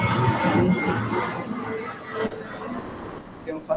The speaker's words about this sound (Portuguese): Um avião passou. É. A gente escutou daqui também. É, é um estrondoso, né?